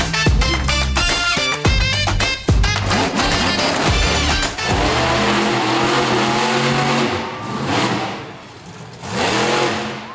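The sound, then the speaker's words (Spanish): A pickup truck arrives, its engine revving hard several times in quick loud bursts, then settling into a steady rumbling drone that swells again near the end. No one speaks. “la camioneta de César Lozano. Ahí llega”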